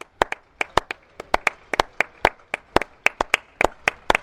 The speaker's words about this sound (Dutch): En dan wordt er op een dag geklapt voor de mensen in de zorg. Ik kan niet klappen met de microfoon in de hand. Ja, ik hoor klappen. Nou, nou best veel.